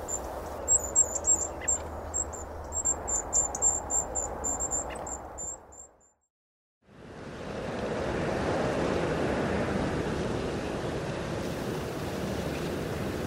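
Choppy loch water splashes and washes steadily in the wind on a rough day, with faint high bird calls over the first half; after a brief silent break the rough water returns louder and continuous.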